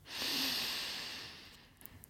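One long, slow breath drawn in through the nose, filling the lungs, during a throat chakra meditation: a soft, airy hiss that swells quickly, holds steady for over a second, then tapers off, quiet with no talking.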